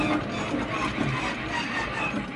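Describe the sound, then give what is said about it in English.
A spinning prize wheel clatters with a fast, steady stream of ratcheting clicks, dense and mechanical, holding an even loudness throughout the short stretch without any voices. “Spin, spin, spin, spin, spin, spin, spin, spin, spin. spin.”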